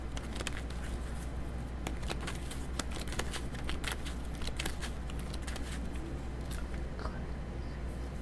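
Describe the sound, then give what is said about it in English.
Steady shuffling of a deck of tarot cards for an Aquarius tarot reading, a dense run of soft papery flicks and riffles lasting several seconds, with no talking over it. “Give it one more shuffle.”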